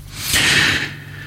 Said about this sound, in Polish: Musiałem wziąć głębszy oddech.